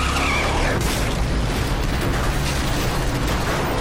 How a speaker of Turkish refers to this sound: Orta şeritte seyreden otomobil bir anda akaryakıt istasyonuna dönmek için hamle yaptığında otobüste çarpıştı. Otomobile çarparak yan yatan otobüs akaryakıt istasyonuna savruldu.